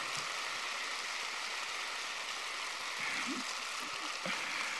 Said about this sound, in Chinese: 很开心啊！我听到你们的掌声，很开心。